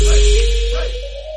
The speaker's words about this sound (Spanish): Pues tengo aquí un osito de peluche y está aquí mi perra intentando morderlo. Uh. Lo tengo que poner en alto. Sí que está loca.